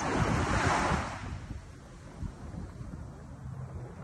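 ocean waves breaking

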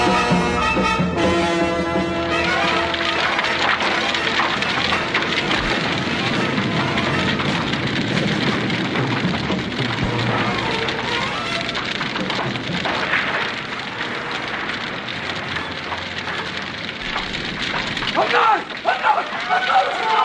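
fire crackling

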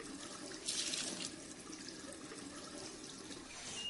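tap water running

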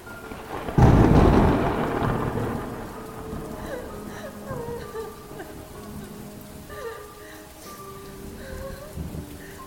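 rain falling outside

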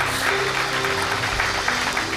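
audience applauding

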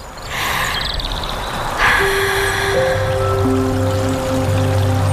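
stream water flowing

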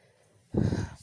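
pet snoring

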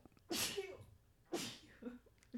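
sneeze

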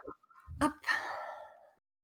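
little girl crying

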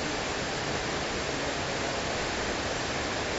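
rain

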